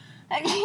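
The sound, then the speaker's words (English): A single sneeze bursts out after a moment of quiet, a sharp, hissy blast with a short voiced tail, over in well under a second. “Bless you.”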